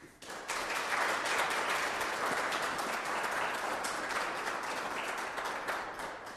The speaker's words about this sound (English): thanks to the boys and girls for the lovely way in which they prepared for the sacrament and the lovely way in which they participated in their first Holy Communion Mass today. And we're going to give you a big round of applause today.